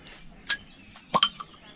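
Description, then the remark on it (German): Glasses clink together in a toast at a party under a camper's awning: one bright chime, then a quick double clink a moment later, ringing briefly over a faint, quiet background. “zum Wohl, Meister. Zum Wohl.”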